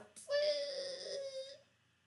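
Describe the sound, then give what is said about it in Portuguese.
A voice imitates a door slowly opening little by little, with one drawn-out, high, whiny creaking squeal that lasts just over a second, steady, then fades into quiet. “E aí a porta começou a abrir de pouquinho em pouquinho, en grissant.”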